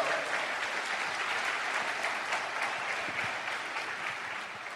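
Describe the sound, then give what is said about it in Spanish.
Sustained audience applause for a member of the support team, a dense, steady wash of many hands clapping at once, loud and even throughout with no voices standing out, easing off only slightly at the end. “un fuerte aplauso para nuestro equipo de apoyo”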